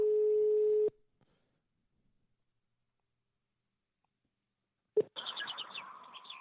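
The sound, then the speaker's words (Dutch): A single steady electronic ringback tone of an outgoing phone call sounds for about a second, then silence. A click marks the line connecting, followed by birds chirping outdoors around the person called, who is sitting out in nature. “We gaan, gaan hem eens bellen.”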